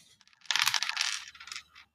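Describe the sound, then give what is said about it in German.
A clattering rattle of dice tumbling across a hard surface, a dense burst of small clicks lasting about a second before trailing off into a few lighter taps. “Da würfel ich mal.”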